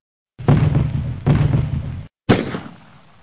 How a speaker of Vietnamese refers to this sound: Bỗng ba phát súng trường nổ đanh giòn.